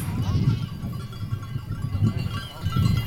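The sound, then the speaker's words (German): Sheep bleat repeatedly in a continuous chorus, joined by the high tinkling of bells jingling throughout, as a shepherd moves with his flock of sheep outdoors. “was bimmelt hier gerade so? Das sind Schafe. Äh, das ist äh, ein Schafshirte mit seinen Schafen”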